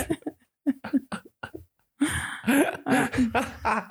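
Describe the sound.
A voice mimics a dial-up modem connecting: a few short chirpy vocal bursts, a brief pause, then a sustained noisy, screeching warble, fairly loud with nothing else underneath.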